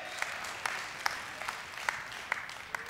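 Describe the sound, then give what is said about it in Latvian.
Thin, scattered applause from a small crowd, with a handful of separate claps popping out over a soft wash of clapping that never builds. “Oh, cik šķidri aplausi!”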